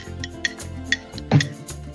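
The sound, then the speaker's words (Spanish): Light, ringing clinks of a small coffee cup holding capsule-machine coffee with crema, about five short taps at an uneven pace, over a low steady background hum with no voices. “Mira, pues te voy a corresponder, lo que pasa es que mi tacita hace menos ruido que la tuya porque tiene un poquito más de crema.”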